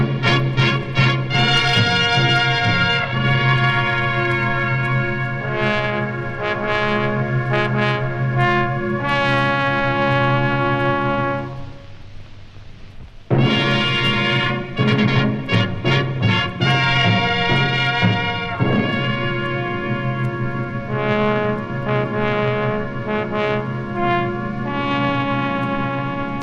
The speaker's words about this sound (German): Und ich habe einen Ausschnitt vorbereitet vom zehnten Wunschkonzert. Dann gibt es erstmal so eine schöne Fanfare und dann eine ellenlange Ansage von Menschen, die gespendet hatten, um sich einen Titel zu wünschen.